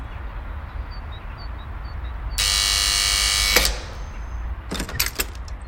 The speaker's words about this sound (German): Der Buzzer summte ausreichend lang